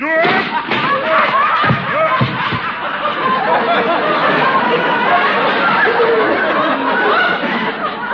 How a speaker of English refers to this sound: Look out, up the chair's tipping.